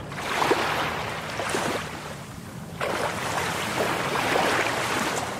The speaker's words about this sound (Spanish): Y aquí estamos en la playa Seven Seas, disfrutando de una playa totalmente tranquila, con aguas cristalinas.